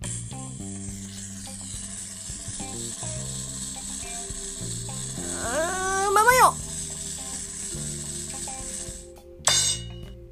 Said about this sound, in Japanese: いやまあとりあえずね今から回したいと思います音出るのかなじゃあ行きますルーレットスタート